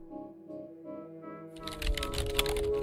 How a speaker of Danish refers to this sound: Og så sætter han sig ned ved computeren og begynder at taste en hel masse ting ind.